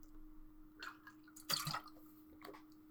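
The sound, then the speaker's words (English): Someone takes a drink of water: a few soft sipping and swallowing sounds, with one brief louder slurp in the middle, over a faint steady hum and no talking. “Just going to take a little bit of a drink of water here.”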